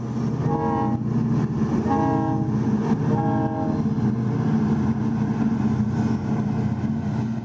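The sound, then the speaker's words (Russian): A long freight train in Mauritania, one of the longest in the world, carrying iron ore from Sahara mines to Nouadhibou, rumbles steadily past, its horn sounding in three blasts over the first few seconds before the heavy, continuous roll carries on alone. “Там он хотел прокатиться на местной достопримечательности — грузовом поезде, одном из самых длинных в мире.”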